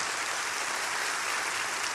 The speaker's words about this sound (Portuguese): Podemos aplaudir o Senhor Jesus.